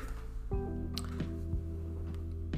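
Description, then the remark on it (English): A few quiet, wet sips of water at uneven intervals over a steady low tonal hum. “Me sipping water, it makes me concentrate on sipping water”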